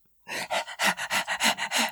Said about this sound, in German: ich glaube im Moment ähm, ist sie noch im Stress hecheln, weil Oskar sie einmal durch unsere Bude gejagt hat